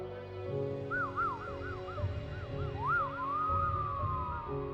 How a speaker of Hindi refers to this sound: जैसा कि पड़ोसियों ने बताया था यह आवाज़ आई और ठीक तीन बजकर सात मिनट पर ख़त्म हो गई ये सीटी की आवाज़ हर रोज़ आती है